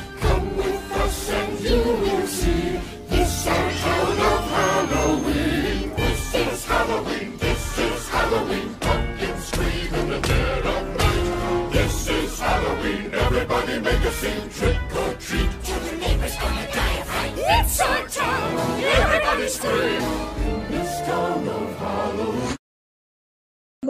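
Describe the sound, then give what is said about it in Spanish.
A loud, busy song from a Halloween film soundtrack, with dense layered instruments and a driving beat, plays continuously for over twenty seconds, then cuts off abruptly into silence. “cuestiones de tiempo no podemos escuchar toda la canción, pero estoy segura que un buen recuerdo se les vino a la mente.”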